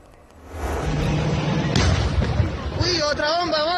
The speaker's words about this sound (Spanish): otra bomba, otra bomba.